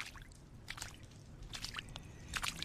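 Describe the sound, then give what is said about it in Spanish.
Wet sloshing splashes as a sack holding a body is pushed down into water, coming in a few short bursts over a low background rumble, moderately quiet, with no voices. “ni siquiera el sonido del agua al romper la tensión por un objeto evitan que hunda el saco con el cuerpo de Hikari.”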